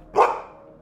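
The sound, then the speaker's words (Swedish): A single sharp, clear dog bark with a brief ringing tail fading into quiet background hum. No one speaks. “Och de som inte blev imponerade av just det fascinerades förmodligen över satellitens passagerare. Nämligen rymdhunden Laika.”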